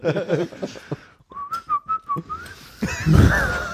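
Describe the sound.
A whistled dance tune, bouncy and fairly loud: short repeated notes in a quick rhythm around one high pitch, rising at the end, with a bit of murmured voice before and after.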